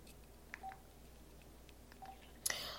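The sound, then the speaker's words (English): Telephone dialing tones as a call comes in live to the Sister Speak Show: a couple of short, steady electronic beeps spaced apart over a faint hiss, followed by a sudden louder burst of crackly static as the call line connects. “calling in live to the platform on the Sister Speak Show.”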